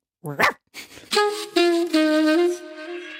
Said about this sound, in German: Wuff, wuff.